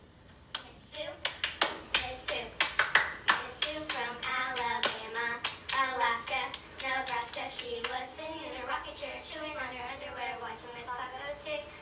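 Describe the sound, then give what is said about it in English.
Children sing a hand-clapping rhyme together over a brisk, steady pattern of hand claps, crisp at first, then the chanting voices carry on with softer taps underneath. “they all vary based on the experiences of those who sing it, in this case, children”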